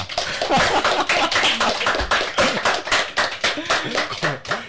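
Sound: hand clapping applause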